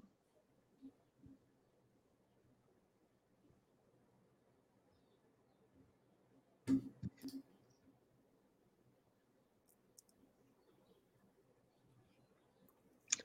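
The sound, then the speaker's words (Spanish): A handful of crisp computer mouse clicks, fairly quiet, come at irregular moments: a quick cluster midway and a lone click at the end, over a faint low hum; clicking Save on a Google for Education certification registration form. “Posteriormente damos clic donde dice guardar y pasamos al siguiente punto.”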